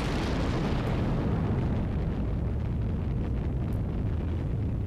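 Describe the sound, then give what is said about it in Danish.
Heavy fire from four cannons at a fortress on an island, driving back attackers, rolls on as a steady, dense booming rumble with no clear gaps between shots, loud, with no voices present. “Men heldigvis blev de drevet tilbage hver gang af ilden fra vores 4 kanoner.”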